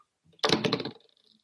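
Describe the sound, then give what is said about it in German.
A door opens with a short, clattering rattle of the handle and frame, loud for about half a second and then fading quickly into quiet, as the speaker's daughter comes in through it. “da kommt gerade meine Tochter zur Tür rein.”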